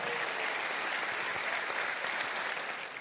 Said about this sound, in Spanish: Un aplauso para nuestra amiga.